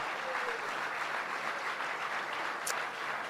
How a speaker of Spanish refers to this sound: Amén y amén. Aleluya. Denle un aplauso alabanza al Señor.